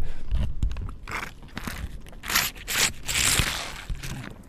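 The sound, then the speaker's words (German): Crinkling and scraping of a foil Capri-Sun cherry juice pouch as a paper straw is pushed through, with several short crunchy bursts and rustles over a few seconds and no talking. “Entschuldigung, das ist eine Capri-Sonne, falls ihr es gerade gehört habt.”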